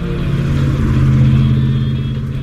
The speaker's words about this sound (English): The red truck passed by in the opposite lane without incident.